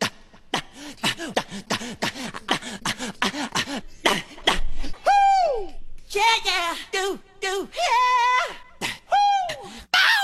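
A rapid string of short vocal cries, yelps and whoops from a singer, cut together one after another, some rising and falling sharply in pitch, loud and punchy with brief gaps between.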